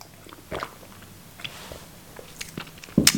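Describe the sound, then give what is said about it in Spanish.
Quiet mouth sounds of someone sipping from a glass: a few soft slurps and swallows, ending in a sharper clink near the end. No talking. “Paren que voy a tomar un vaso, un sorbante que me desmaye.”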